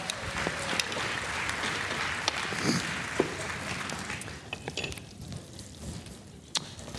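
Audience applause, a dense crackle of many hands clapping at once, fairly loud at first and then thinning out to scattered, sharper claps toward the end.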